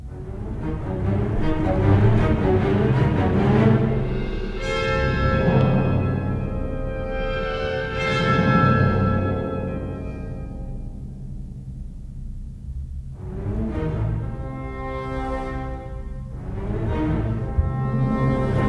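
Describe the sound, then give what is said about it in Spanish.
An orchestra plays a slow, sustained passage, the opening of a third movement depicting a storm over the sea that builds little by little, with rich low chords and gentle swells that rise and fade every few seconds at a moderate, steady volume, with no voices. “Este tercer movimiento termina precisamente, como decías tú, como no puede ser menos que una tormenta, una tormenta sobre el mar.”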